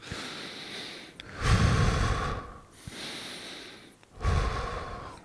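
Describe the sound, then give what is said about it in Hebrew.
Audible rapid breathing at an even pace, about two seconds in and two seconds out, as breathing during extreme exertion: a breath in, a breath out, then another in, with no talking. “למשל, אם אני נמצא במאמצי קיצון, בוא נגיד, לא, אז אני לא יכול ממש להאט את הקצב הנשימה, אז אני אנשום נשימות מהירות, אבל בקצב אחיד, זה יכול להיות שתי שניות פנימה, שתי שניות החוצה.”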